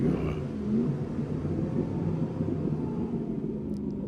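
A car engine rumbles steadily, a deep continuous growl that holds its level for a few seconds with no voices over it.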